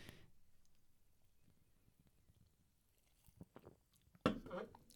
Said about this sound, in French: Ah, ça fait du bien de boire un truc frais là.